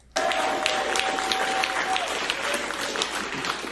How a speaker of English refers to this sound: and this is left wing people clapping for this shit, folks.